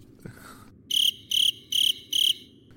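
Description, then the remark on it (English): Four evenly spaced cricket chirps ring out, each a bright, pulsing trill against a faint low hum, loud with short silent gaps between them. “cricket chirps? There the you go. Chirps.”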